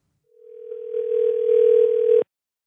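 A single steady ringback tone from an outgoing phone call, one unbroken electronic beep lasting about two seconds, clear and fairly loud with faint line hiss, then abrupt silence. No one speaks.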